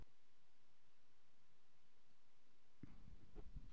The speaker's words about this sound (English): sound of the paper